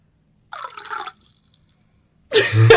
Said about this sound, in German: Schatz, Badewanne ist fast fertig. warte, warte. Nur die letzten Tropfen der Badewanne.